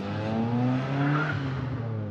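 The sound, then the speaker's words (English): A station wagon's engine roars, its steady droning pitch climbing as it enters the road without stopping or slowing, accelerates hard and speeds away. No voices are heard. “The station wagon didn't stop or slow down, but instead entered the road and sped off.”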